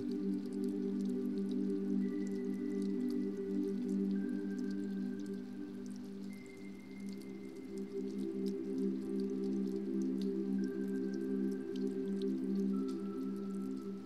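Raindrops patter onto a river in a steady, continuous wash of small drips and splashes, with a low droning hum underneath and no voices.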